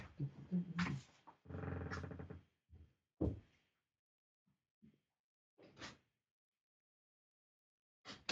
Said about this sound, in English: Hold on, there's a cat shouting at the window. I just need to go and let her in.